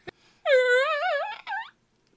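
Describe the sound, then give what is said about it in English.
A loud human voice lets out a wavering, wobbly wail for about a second, dips briefly, then ends in a shorter cry, like a hurt dog's howl. A faint click comes just before. “You sound like a dying dog.”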